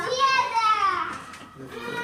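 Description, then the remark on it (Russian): High-pitched children's voices call and shout while playing outside, a couple of drawn-out squeals followed by fainter chatter, fairly loud with no adult talk over them. “так, детишки вышли.”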